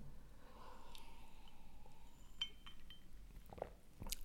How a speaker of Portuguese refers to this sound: Vou ter que beber aqui um golinho, peraí, deixa-me... Porque isto cansou-me.